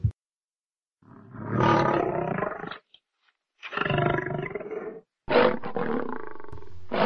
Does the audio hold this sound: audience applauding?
no